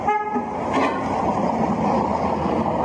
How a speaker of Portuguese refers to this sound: Alguém buzina, provavelmente um apoiador, ele acena.